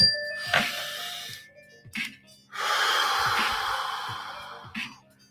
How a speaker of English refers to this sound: I definitely needed to take that deep breath. I want to just get all that energy out.